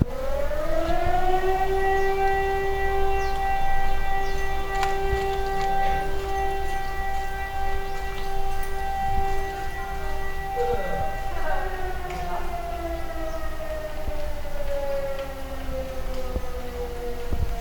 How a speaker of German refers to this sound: Ja, jetzt habt ihr mal die Sirene gehört. Feuerwehrsirene. Also da scheint wieder irgendwas passiert zu sein. Ähm. Ja. So klingt die Feuerwehrsirene.